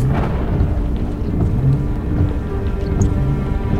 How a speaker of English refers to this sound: The rain was coming down in sheets now, almost like last night's episode.